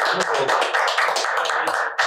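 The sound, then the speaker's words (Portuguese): A round of applause for a guest at the end of a show: dense, rapid clapping from many hands, steady and fairly loud for about two seconds, with no voices standing out above it. “Uma salva de palmas.”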